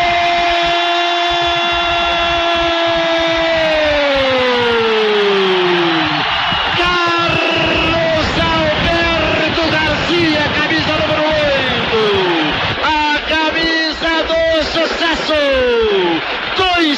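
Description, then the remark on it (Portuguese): A loud, continuous stadium crowd roar fills the whole stretch as fans cheer a headed goal by Carlos Henrique putting Tubarão 2–1 up on Grêmio, while a man's voice shouts a long, drawn-out goal call on top, sliding in pitch over the cheering. “Explode a grande torcida.”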